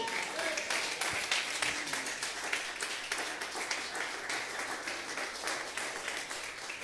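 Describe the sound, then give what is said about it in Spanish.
An audience claps for the Lord during a sermon in a dense, steady wash of applause that holds at an even loudness for several seconds, with scattered sharper claps standing out and faint voices mixed in. “Dele palmas al Señor si está entendiendo.”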